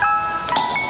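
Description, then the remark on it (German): A beer delivery truck's ringing jingle plays steady, bright tones, with a louder burst of chiming in the middle, without speech. “Der kommt immer und läutet ein, der bringt uns quasi ein frisches Bier.”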